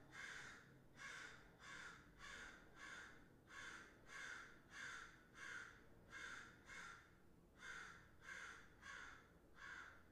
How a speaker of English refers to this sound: Sorry, guys. Usually there's no crow around my house making noises like that, but I don't know why this crow is just outside my window making the loudest sound.